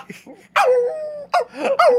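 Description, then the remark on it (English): A person imitates a Chihuahua-Pomeranian mix dog named Penny crying: one long, drawn-out whimpering whine, then two shorter yelping cries, loud with no talking. “That's a good dog sound.”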